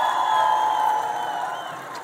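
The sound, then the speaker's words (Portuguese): An audience at a live session of Escolinha do Professor Raimundo claps and cheers for Matheus Solano and Fabiana Carlos in a steady, dense wash of sound, with high whoops and a sustained whistle-like tone riding on top, easing off slightly toward the end. “E agradecer, claro, e pedir palmas para o Matheus Solano e para Fabiana Carlos.”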